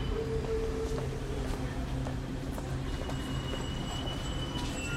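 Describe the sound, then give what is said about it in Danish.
A train departing from Hellerup rolls steadily along the rails with a loud, constant low rumble, scattered clacks from the wheels and faint metallic squealing tones running through it. “Vi skal tage afsted fra Hellerup øh, med toget”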